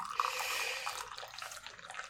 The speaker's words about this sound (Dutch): Eh, dat is niet mijn unieke mening, maar ik ga even lawaai met hem, eh, een, kopje thee inschenken.